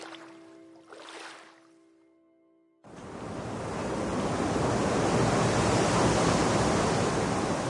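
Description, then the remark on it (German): After a quieter opening with a low steady hum, a loud, dense roar of storm wind and rough water cuts in abruptly and keeps building, unbroken, as the storm tosses the tops of palm trees on the Gulf of Mexico coast; no voices. “Der Wind von gestern ist zum Sturm geworden, der die Wipfel der Palmen zerzaust.”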